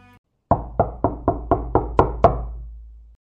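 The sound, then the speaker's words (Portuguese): Seven firm knocks on the door of the mayor's house, in a quick, even rhythm, loud, with the last two landing slightly harder, then a short resonant tail and silence. “Chegando lá, pela segunda vez naquele dia, bate à porta em busca do prefeito.”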